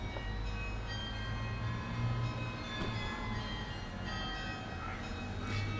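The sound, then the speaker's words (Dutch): Church carillon bells ring steadily at the Nicolaaskerkhof by the Nicolaikerk, their sustained overlapping tones hanging over a continuous low outdoor rumble, with no one talking. “Nou, zoals we horen aan het carillon zijn we op het Nicolaaskerkhof uh, aangeland.”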